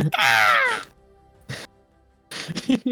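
Seagulls at sea: a loud, harsh seagull squawk rises and falls, followed after a pause by a short burst and then a cluster of rougher, choppier calls near the end.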